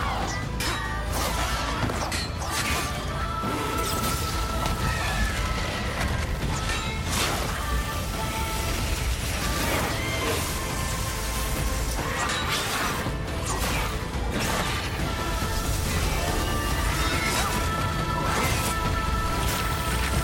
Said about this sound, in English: Now, you do shoot fireballs in what we're about to see right here